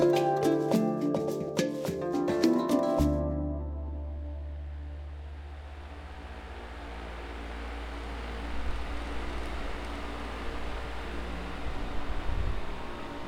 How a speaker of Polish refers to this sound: Jedne z najbardziej charakterystycznych dźwięków Tanzanii, przynajmniej dla mnie, wentylator i klimatyzacja.